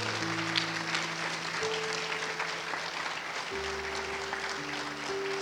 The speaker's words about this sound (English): Just all over the building, all the dads standing there. Hey, can all the rest of us give them a hand clap of praise?